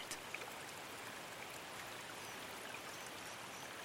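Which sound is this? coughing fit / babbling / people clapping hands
babbling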